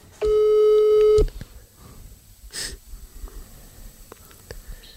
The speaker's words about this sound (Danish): Så nu prøver vi lige at ringe op her. Nu må jeg lige gøre det lidt øh, analogt her.